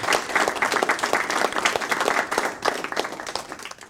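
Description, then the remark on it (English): Several people clapping their hands in a steady, busy patter of sharp claps lasting a few seconds, fairly loud with no talking over it. “Let's clap them off. Yep. Clapping them off.”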